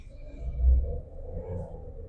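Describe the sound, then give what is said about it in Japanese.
A steady low rumble inside a car idling and creeping through a traffic jam on the morning drive to work, swelling slightly for a moment before settling back, with no voices. “いやーもう、なんなの、この渋滞。”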